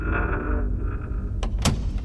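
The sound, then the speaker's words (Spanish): A door swings slowly shut with a low, drawn-out groan, then a couple of sharp clicks as the latch catches near the end. It is fairly loud, with no voices. “Cerré lentamente la puerta”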